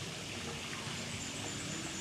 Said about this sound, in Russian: И она, по сути дела, просто воду, короче говоря, фигачит, вот так, выкачивает из пруда и обратно, собственно, в пруд распыляет. Это нужно для того, чтобы вода не застаивалась, просто чтобы было движение воды, чтобы она не зеленела.